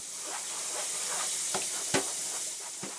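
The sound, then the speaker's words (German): Steady sizzling hiss of fried rice with chopped vegetables frying in a pan, with a few sharp scraping clacks as the contents are stirred and tossed while dinner is cooked ahead of time, with no voices. “das Abendessen vorgekocht. Bratreis mit kleingeschnittenem Gemüse.”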